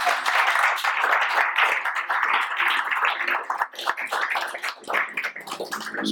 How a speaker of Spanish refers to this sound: Denle un aplauso fuerte al Señor, por favor.